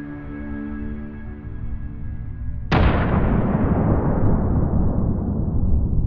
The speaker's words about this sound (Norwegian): og så kommer det en kjempekraftig eksplosjon, husker jeg.